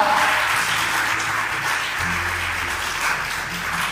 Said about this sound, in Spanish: ¿Cuánto le dan palmas al Señor esta mañana? Déselo a Él, porque a Él es la gloria.